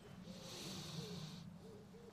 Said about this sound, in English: A few birds I can hear around.